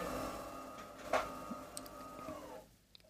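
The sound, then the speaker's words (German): A coffee machine whirs and rumbles steadily in the background, with a sharp click partway through, then its motor tone drops and winds down near the end. “Im Hintergrund brüttelt gerade die Kaffeemaschine.”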